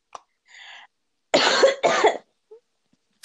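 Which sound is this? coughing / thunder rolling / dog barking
coughing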